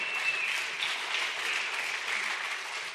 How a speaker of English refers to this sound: Those of you online, I know you're cheering with us.